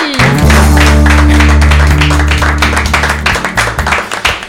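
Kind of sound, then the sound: crowd, applause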